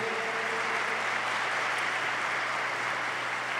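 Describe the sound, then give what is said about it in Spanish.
An audience claps loudly and steadily for Jesus, a dense, continuous wash of many hands applauding at once with no break, and no voices standing out above it. “Fuerte ese aplauso a Jesús, fuerte, fuerte. Apláudele, apláudele eso.”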